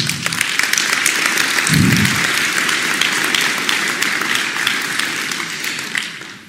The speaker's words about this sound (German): Applaus